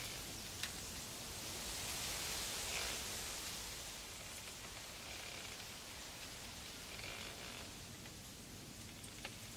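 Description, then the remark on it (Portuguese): Bamboo stalks swaying in the wind and knocking against each other, heard as a steady, airy rustling hiss that swells slightly and then settles, with a couple of faint knocks, continuous, with no voices. “Eu tenho ele gravado, essa dança do bambu, assim, mas esse som ficou muito na minha cabeça.”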